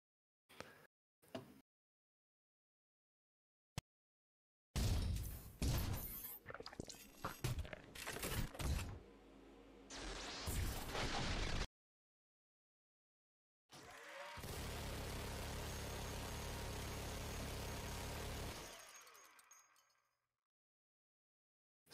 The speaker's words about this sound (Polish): Słyszycie ten odgłos upadających łusek?